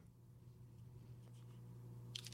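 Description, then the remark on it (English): A bottle cap is twisted off a bottled blackberry-and-champagne flavored drink with faint crackling clicks, ending in a short bright hiss of release. It's quiet, over a steady low hum, with no talking. “The cap is off.”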